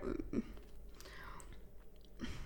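Quiet chewing with a few soft crunchy bites at the start and near the end, someone munching potato chips.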